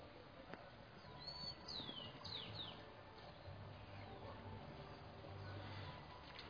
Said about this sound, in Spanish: Se escuchan allá ah, también los cerdos de, de Miguelito también los palomos, algunos pajaritos.